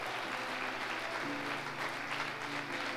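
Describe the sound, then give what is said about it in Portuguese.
An audience claps in praise of the Lord in sustained, dense applause, many hands blending into a steady wash of sound, with a low tonal hum beneath it throughout. “Dê um glória a Deus e aplauda o Senhor.”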